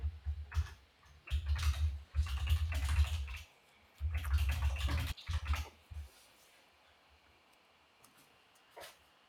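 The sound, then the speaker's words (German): Clatter of someone typing a message on a computer keyboard in quick bursts for about six seconds, with dull knocks on the desk underneath, then the keys fall quiet. “Ja, ich schreibe ihn mal.”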